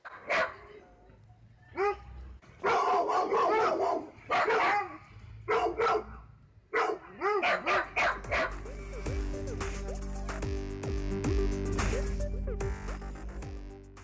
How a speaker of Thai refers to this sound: ลาไปด้วยเสียงน้องหมากันครับ